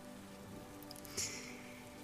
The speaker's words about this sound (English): It's raining today. The sky is gray, and there are huge drops of rain pouring down from the sky.